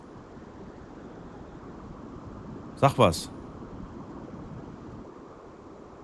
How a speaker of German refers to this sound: Jetzt höre ich nur noch das Auto rauschen.